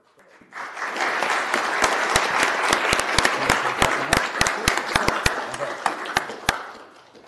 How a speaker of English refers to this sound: And since 1993, over 17,000 children have been through Mini Muster. Isn't that amazing? That's a clap.